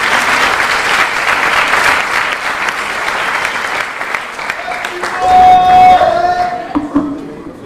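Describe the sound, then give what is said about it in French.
A crowd applauds steadily at an evening event in Marseille to welcome a speaker. The dense clapping lasts several seconds before thinning out, with a few voices and a brief cheer or whistle rising near the end. “Alors sans plus tarder, j'aimerais qu'on puisse l'applaudir, le remercier de venir nous partager ce message.”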